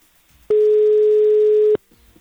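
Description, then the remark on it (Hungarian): A telephone ringing tone: one loud, steady electronic beep held for just over a second, then cut off, with only faint background noise before and after. “Bent hallott, hogy csörög a telefon, azért az nem jó.”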